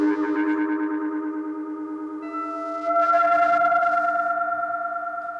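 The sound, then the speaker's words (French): A guitar run through a monophonic synthesizer module drones a steady, buzzy, sustained tone that shifts pitch twice and swells slightly louder midway, with a faint echoing edge and no voices. “ça peut être un synthé monophonique basique hein, à trois oscillateurs”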